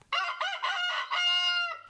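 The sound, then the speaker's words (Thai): A red junglefowl rooster crows once, loud, a harsh multi-part call that ends in a long drawn-out note lasting nearly two seconds, with no other sounds. “ไก่ป่าในความหมายของประเทศไทยเนี่ยจะมีเพียงชนิดเดียว แต่ว่าแบ่งเป็น 2 ชนิดย่อยก็คือไก่ป่าตุ้มหูแดง ก็คือจะมีหนังบริเวณ หูเนี่ยสีแดง ซึ่งจะพบทางภาคเหนือ ภาคตะวันตกแล้วก็ภาคใต้”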